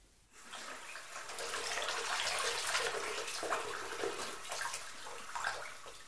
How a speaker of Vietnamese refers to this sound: Về nhà, người đàn ông nhanh chóng rửa sạch máu dính trên tay.